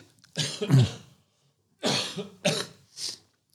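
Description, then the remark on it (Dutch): Several harsh coughs: a heavy double cough followed by a short pause, then two more quick coughs and a lighter, breathy one at the end. No one is talking. “Als ik ja. hoest, dan mag jij gewoon doorpraten.”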